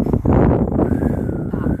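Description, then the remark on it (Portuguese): Strong storm wind roars steadily through a gap under a door, a dense continuous rush with a thin whistling tone rising over it, loud throughout. “tá dando uma tempestade aqui e eu já, já queria dormir já. Sim. Já não queria fazer mais nada. Tá um vento lá fora.”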